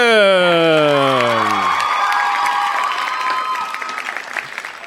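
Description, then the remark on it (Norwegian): An audience breaks into loud applause and cheering, with a rising, whooping cheer at the start giving way to steady clapping and crowd noise that slowly fades. “Og det er klart, ingen uh, eh, podkastsending er komplett uten vårt fantastiske publikum!”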